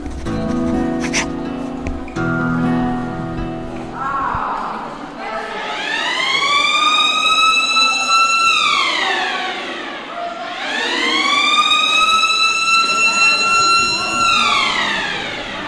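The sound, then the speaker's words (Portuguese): A loud prison wake-up siren, sounded before breakfast to wake the inmates, wails in two long cycles, each rising to a steady high pitch and then sliding back down, after a few seconds of other indistinct sound. “Antes do pequeno almoço, tenho uma sirene, um som que é para acordarem eu acordo um quarto para as seis.”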